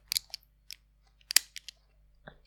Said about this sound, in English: That was the belt buckle. It's like a seat belt. I just wanted to. I, I wasn't. I wasn't undoing my pants. I was showing how the belt works.